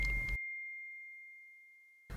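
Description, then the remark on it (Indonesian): A single bright WhatsApp message-notification chime rings out clearly and then slowly fades over about two seconds, standing alone between brief bursts of background noise. “Tapi kok tiba-tiba ada WhatsApp masuk dari Neng.”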